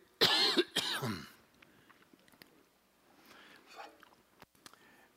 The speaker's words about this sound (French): Excusez, je vais tousser.